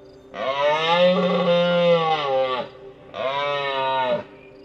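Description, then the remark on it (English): A moose bellows twice with rage in a forest, loud: a long, raw, droning call followed by a shorter one after a brief pause, deep and harmonically rich with no other sounds. “The bellow was a raw, deep noise reverberating through the forest.”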